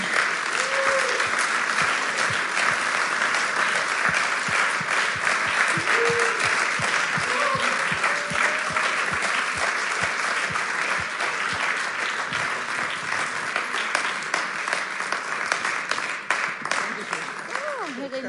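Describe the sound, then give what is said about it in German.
Sustained audience applause for two guests about to share things from their lives, a dense wash of many hands clapping steadily at an even, fairly loud level for the whole stretch, with a few faint voices and whoops rising through it. “Und ihr dürft nochmal einen großen Applaus geben”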